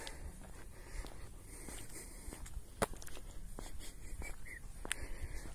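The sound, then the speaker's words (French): Soft, steady footsteps crunch along outdoors at a relaxed pace as someone walks calmly to a small horse stud farm, with a couple of sharper clicks and a faint breezy background. “Alors on va essayer de marcher tranquillement.”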